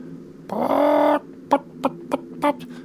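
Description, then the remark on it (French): A large hen, not far off, lets out a drawn-out, strained squawk, then four short, evenly spaced clucks, with no talking. “Mais on dirait le bruit d'une poule.”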